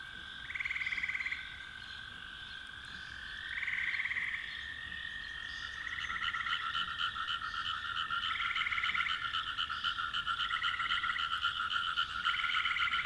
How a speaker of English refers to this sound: Yes, frog sounds can be very soothing, very therapeutic.